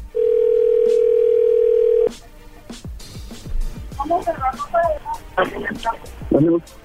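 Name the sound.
telephone dial tone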